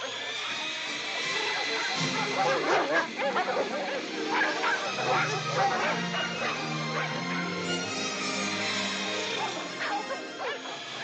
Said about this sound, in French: Puis là, il y a des chiens qui courent après.